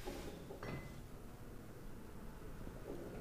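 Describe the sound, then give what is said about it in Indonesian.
Dice rattle and tumble faintly across a surface, a soft clattering with one sharper knock early on, heard alone against a low background hiss. “Oke, okay, angkat dadunya dan putar. Kau putar sekali lagi.”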